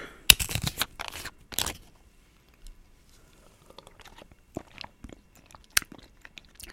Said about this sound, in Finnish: Hetkinen, hörppään tässä välissä hieman maitoa.